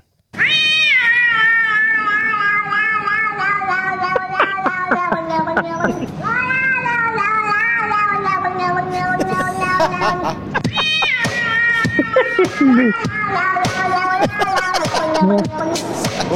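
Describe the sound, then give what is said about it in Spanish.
About five cats meow loudly and insistently, long drawn-out wails overlapping one another in a continuous chorus, with scattered clicks and small knocks underneath. “como cinco gatos a mi agar.”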